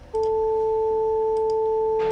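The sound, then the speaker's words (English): A steady electronic tone made of two pure sine components, a fundamental and its octave, starting abruptly and holding at constant loudness for about two seconds with no voices. “So the first and second sound like this.”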